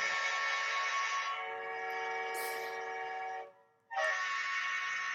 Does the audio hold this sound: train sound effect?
yes